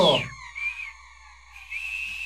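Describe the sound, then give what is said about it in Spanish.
A person whistles one long, steady, fairly high note that holds for about two seconds after a brief breathy start. It imitates a simple whistle heard far away at night. Moderately soft. “A lo lejos, o sea, no, no, así un silbido”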